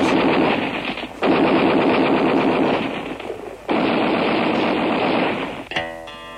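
Loud, rapid bursts of automatic gunfire rattle in long sustained volleys with brief pauses between them, close and dense, ending with a few scattered shots.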